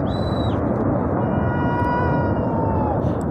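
A glacier collapsing into a valley, in an eyewitness recording where people can also be heard shouting to warn those further down: a steady, loud roaring rumble fills the whole recording, with thin whistling and squealing tones drifting over the top.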